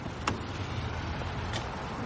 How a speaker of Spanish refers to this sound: un coche negro para ante Sloan.